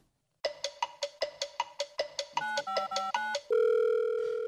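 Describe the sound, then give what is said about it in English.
A phone call being placed to a coach: a quick run of electronic beeps, then a burst of touch-tone dialing, ending in a long steady ringing tone. Clear, with no voices. “I'm going to give uh, Coach Dickmann a call here”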